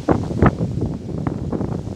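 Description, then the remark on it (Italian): Strong wind buffets the microphone outdoors beside a swimming pool on a sunny day, a steady low rumble with louder gusts near the start, a continuous blustery roar with no clear voices. “e anche tanto vento.”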